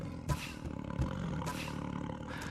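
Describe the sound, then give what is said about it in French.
A lion raises its head and growls in deep, rumbling bursts, with two sharper accents standing out over a continuous low throaty drone; fairly loud, no voices present. “Le lion releva la tête et gronda.”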